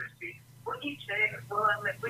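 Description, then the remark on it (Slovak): A thin, tinny caller's voice comes through a telephone line into a radio call-in, doubled by a delayed echo from the caller's own radio playing, with a steady low hum running underneath the whole time. “Aha, tam to máte opozdené, už ma počujete? Uh, stište si rádio, prosím vás, alebo...”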